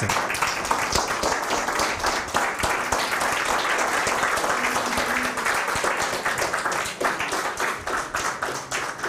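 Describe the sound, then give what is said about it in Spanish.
A crowd gives a loud applause to the Santo Bendito, clapping steadily for several seconds, a dense wash of many hands clapping at once with sharp individual claps poking through, holding a constant loudness before easing slightly at the end. “un fuerte aplauso al Santo Bendito”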